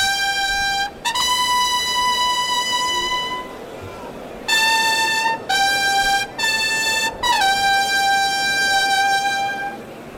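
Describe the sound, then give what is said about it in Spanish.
Bugles sound a fanfare at a bullfight announcing the entrance of the third Miura bull: bright, sustained high notes in a series of long blasts separated by short breaks, loud over a low background murmur. “Clarines anuncia la salida del tercer Miura.”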